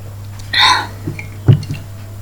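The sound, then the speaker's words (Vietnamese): A short, airy slurp of a sip of beer followed by a few soft, low gulping swallows, quiet mouth sounds over a faint steady hum, with no talking. “làm hớp đã uhm.”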